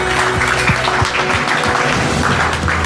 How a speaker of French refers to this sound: Eh bien, le pouce d'or du, du fake news fail est attribué à Florian Philippot. On peut l'applaudir. Bravo, Florian.